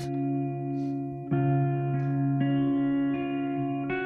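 A slow ballad opens on reverb-soaked electric guitar, with sustained ringing chords that shift every second or so. It is steady and moderately loud, with no singing yet.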